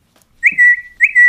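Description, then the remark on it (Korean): Two short, bright whistled calls, each rising into a sustained high tone, repeated in a quick pattern with no voices: a cat call, a whistle used to summon a cat. “고양이를 냥이를 부르는 거예요.”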